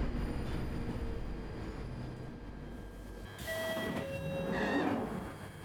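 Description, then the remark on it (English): An electric train on an imagined, never-built electrified line from Finsbury Park to Alexandra Palace, at Cranley Gardens station, rumbles along steadily, then its motors whine with rising tones and a metallic squeal as it picks up speed. No one speaks. “So the sounds you hear today are those of an imaginary electric railway that was never built.”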